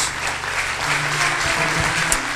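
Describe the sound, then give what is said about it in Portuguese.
An audience applauds in praise of God, a dense, continuous wash of clapping at a fairly loud, even level with a low hum underneath and faint voices mixed in. “Nós aplaudimos o teu nome, Jesus.”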